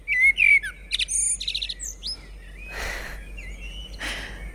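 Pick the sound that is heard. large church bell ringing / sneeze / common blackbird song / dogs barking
common blackbird song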